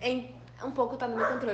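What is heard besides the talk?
dogs barking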